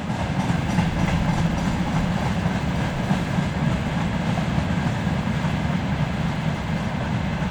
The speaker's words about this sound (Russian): а это просто поезд